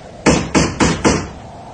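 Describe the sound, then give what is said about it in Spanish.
Four firm knocks on a door in a steady, evenly spaced rhythm, fairly loud, with no voices and only quiet background before and after. “Llamé.”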